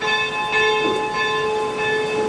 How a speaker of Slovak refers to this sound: Takto znie zvon kaponky 7 bolestnej panny Márie na Detvianskej kalvárii, ale nie je to pôvodný zvon, ktorý bol pre túto kaponku odlievaný.